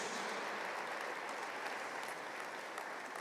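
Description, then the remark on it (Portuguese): Steady, dense applause from a crowd clapping for Christ, a continuous wash of many hands clapping at even loudness throughout, with no one speaking over it. “Você pode dar um aplauso a Ele, Cristo?”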